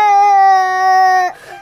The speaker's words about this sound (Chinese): 离家越来越近了，他越来越想妈妈了，忍不住哭了起来，说：“ 抱抱抱抱。”